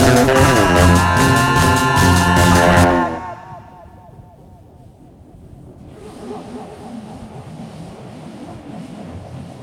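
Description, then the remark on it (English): A microphone rubbed against denim, drenched in heavy reverb: a loud, roaring, droning scrape for about three seconds that dies into a long echoing wash, then a quieter hissing rumble. “That was me rubbing a microphone on my jeans. rubbing a microphone on my jeans with a lot of reverb.”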